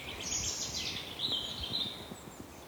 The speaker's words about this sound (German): Ich höre die Vöglein zwitschern.